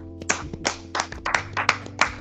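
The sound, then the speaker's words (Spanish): Applause for the audience, heard as about eight separate, fairly loud claps in a loose, uneven rhythm over a steady low hum, with no talking. “Aplauso al público.”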